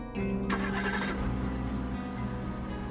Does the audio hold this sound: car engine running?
yes